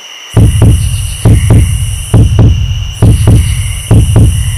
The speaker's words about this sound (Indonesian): Kamu memasang telingamu dengan tajam. Suara jangkrik dan detak jantungmu pun berbunyi di dalam kesunyian itu.